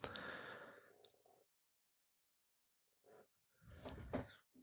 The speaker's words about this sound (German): Ich hoffe, man hört das Quietschen der äh, Wärmflasche an der Tischkante nicht so. Das klingt ein bisschen wie so ein äh, Furzkissen aus der Schulzeit.